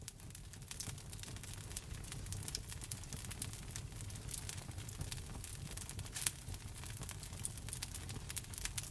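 A fireplace fire crackles steadily with dense, irregular pops and snaps over a soft low rumble, heard alone at a quiet, even level with one slightly sharper crack partway through.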